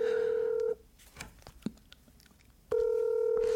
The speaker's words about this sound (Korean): 네, 지금 조카한테 바로 전화 연결합니다.